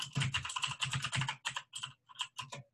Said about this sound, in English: Your keyboard is is pretty loud today.